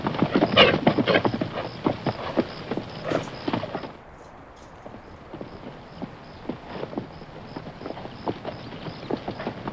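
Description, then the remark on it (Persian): The hooves of two riders' horses clip-clop in a steady, uneven rhythm as they arrive near Rikh at dusk and approach a teahouse, louder for the first few seconds and then softer and more muffled, with sharp knocks continuing throughout and no talking. “تاریک و روشن هوا بود که دو سوار به نزدیکی ریخ رسیدند پس از اینکه به قهوه خونه نزدیک شدند از اسب هاشون پیاده شدند و اونها رو به تیرکی که جلوی قهوه خانه بود بستند”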